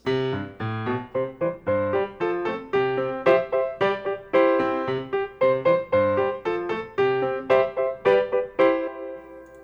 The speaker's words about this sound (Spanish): Suena de nuevo la campanita, no, la cancioncita que le dice a nuestros niños que estamos aquí recibiendo sus llamadas